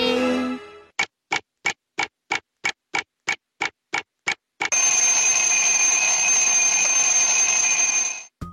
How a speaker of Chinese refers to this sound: 哦，这个声音啊，每天早上我都会听到哦。 嗯，有了它，上学就不会迟到啦。 这种生活用品啊，还有数字一到十二，而且早上会铃铃铃叫我们起床。